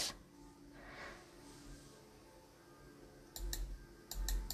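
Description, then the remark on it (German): Keyboard keys are hammered hard as the keyboard is being destroyed, in two quick bursts, a couple of sharp clacks followed by about three more, each with a heavy thud, with no one talking. “Oh, wir zerstören die Tastatur.”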